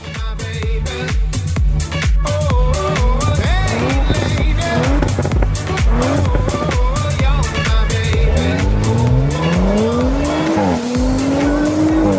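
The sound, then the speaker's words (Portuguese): An Audi RS4 Avant's engine revs loudly, pitch climbing through hard accelerations, while tires squeal and skid throughout a continuous stretch of driving with no one talking. “RS4 Avante, Alex que nave, que máquina!”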